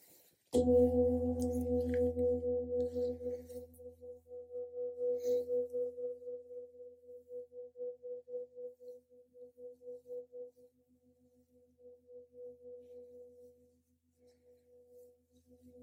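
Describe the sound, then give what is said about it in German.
A single gong struck once, its deep tone blooming loudly and then ringing on for many seconds with a slow, pulsing shimmer as it gradually fades. No one speaks. “Beim zweiten Gong lasse ich diese Qualität in meine Ausstrahlung um mich herum schwingen, in meinen Alltag und in meine Zukunft.”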